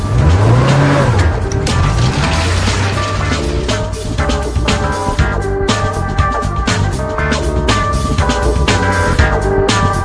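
A car engine is started, then roars and revs loudly, pitch climbing as the car accelerates away to follow others at a distance, with hints of tire squeal in a dense, continuous rush of motor noise and no voices.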